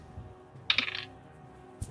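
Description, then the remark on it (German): A short, bright clatter of dice rolled during a tabletop role-playing game, tumbling across a hard table and rattling for about a third of a second, then one faint click as they settle. No voices. “So, komm, Würfel, lass mich nicht im Stich.”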